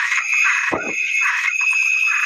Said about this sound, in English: And surprise, I got a toad bomb. It's a sonic toad.